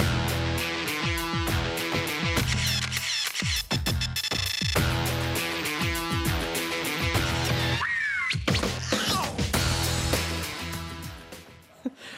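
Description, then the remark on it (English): Loud, dense electronic TV show theme song with pounding percussive hits and sharp, screeching synth tones that swoop and slide, playing continuously with no talking over it. “This is the theme song to Project Runway.”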